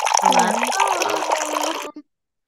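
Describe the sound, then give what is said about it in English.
Liquid is poured into a shot glass for about two seconds, a gurgling splash whose pitch rises as the glass fills, then stops abruptly. A faint clink follows. “Do you have yours ready with your shot?”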